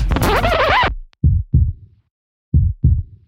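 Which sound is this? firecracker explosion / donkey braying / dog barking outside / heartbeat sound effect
heartbeat sound effect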